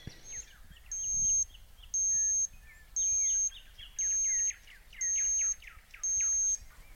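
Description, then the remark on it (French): A digital thermometer, used to take body temperature several times a day by mouth and under the arm, beeps six times in a steady pattern, each high, clear tone lasting about half a second with short pauses between, while birds chirp faintly in the background. “Ça, c'est le bruit du thermomètre qui ressemble, euh, vous l'aurez entendu, un peu à celui du four et qui est devenu un bruit très familier depuis que je prends ma température euh, plusieurs fois par jour, par voie buccale et axillaire.”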